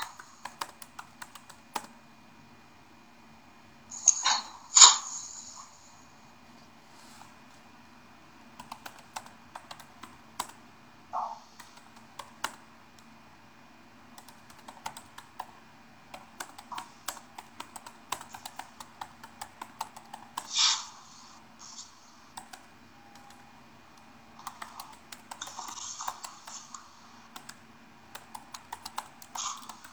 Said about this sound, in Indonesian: Oh iya, ini ada satu yang sedang mengetik